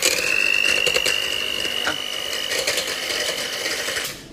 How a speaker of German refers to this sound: Jetzt nehme ich da einfach so einen normalen Mixer und schlage die Sahne.